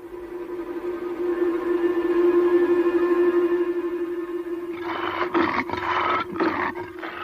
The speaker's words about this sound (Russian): О, что это? Это лев.